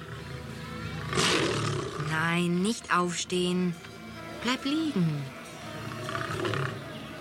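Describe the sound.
A loose circus lion roars loudly in several deep, rumbling bursts that slide downward in pitch, while a man speaks calmly over and between the roars.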